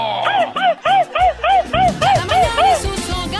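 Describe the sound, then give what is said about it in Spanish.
A voice imitates a small dog, letting out a quick run of about ten high, yappy yips and barks in a steady rhythm, loud, with faint background noise underneath. “Échate el paso del perrito,”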